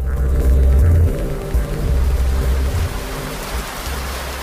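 Steady rain pours onto a surface, a dense, continuous hiss of drops with a low rumbling undertone, fairly loud throughout with no voices.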